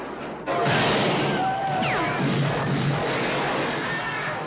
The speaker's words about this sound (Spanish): Ya veis que escuchamos muchos tiros. Es una película de, un grupo de, Pues eso. Es una película de tiros.